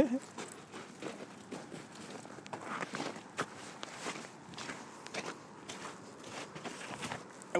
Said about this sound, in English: Here we go. Here's snow. Here's what snow sounds like. Come on, it's packed. Whoops.